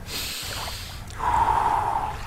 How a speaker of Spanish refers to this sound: Y escucha al propio … respirando.